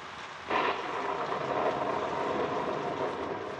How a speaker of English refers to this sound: Inside this cabin are three mighty hunters, three mighty disgusted hunters, because outside the cabin it's raining.